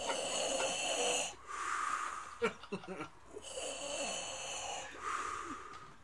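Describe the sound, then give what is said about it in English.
Heavy, raspy breaths rasp loudly right up against the microphone, long drawn inhales and exhales in a slow rhythm, with a few short snorting catches in the middle, like a voice deliberately imitating mechanical breathing. “Go closer to the mic and make that noise. and yeah, dude. You sound like Darth Vader”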